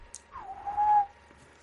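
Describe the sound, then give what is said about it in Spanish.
A single human whistle, a falling-then-steady tone that swells louder near the end before cutting off, mimicking the contour of someone's speech. Clear, with no talking. “habla así, silbando.”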